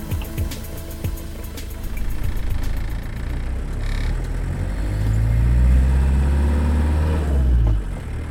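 A 1990 Fiat Ducato camper van engine, with a Hümer motorhome body on the Fiat Ducato chassis; its low rumble rises as it accelerates and revs up, then eases off near the end. Some clicks and rattles sit over it at the start.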